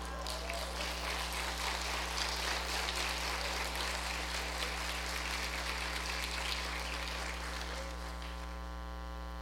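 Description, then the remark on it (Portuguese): An audience claps steadily for about eight seconds, a dense crackling patter of many hands, over a constant low electrical hum; the clapping thins out toward the end. “Você pode aplaudi-lo?”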